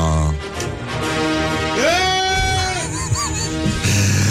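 A goat bleats once in a long, quavering cry with a wavering pitch, loud, over a busy, noisy background.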